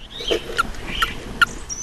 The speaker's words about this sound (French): Crapaud commun. On voit sur le dessus beaucoup de pustules. Là, on l'entend chanter.